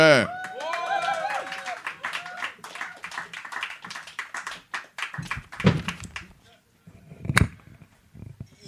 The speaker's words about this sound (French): Et euh, là-dessus, là-dessus, s'il vous plaît, une bonne main d'applaudissements pour euh, celui qui va commencer cette soirée-là.